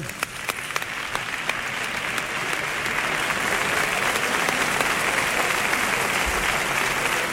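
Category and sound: crowd, audience applause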